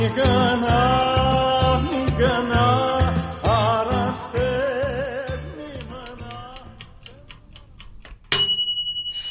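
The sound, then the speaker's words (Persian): Music plays, then fades into a steady mechanical ticking of a stove's timer for a couple of seconds, ending in a sudden loud metallic bell ring that lingers, signaling that the food, abgoosht in a pressure cooker, is ready. “صدای زنگ اجاق گاز داره میگه که غذامون آماده است”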